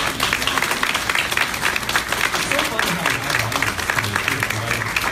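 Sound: audience round of applause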